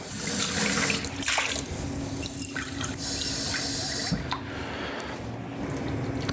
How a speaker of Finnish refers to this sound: Puolikkaan desin laitoin nyt tonne vettä ja sitten mä laitan tähän kannen päälle ja tää saa porista tossa ihan rauhakseen.